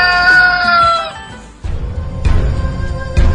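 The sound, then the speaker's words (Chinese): A rooster crows once, a bright, strained call lasting about a second, followed by a stretch of loud, rough rumbling noise with sharp bursts. “从此以后，无论是凛冽的寒冬，还是炎热的酷暑，无论是刮风还是下雨，一听到鸡叫，他们就立刻起身练武。”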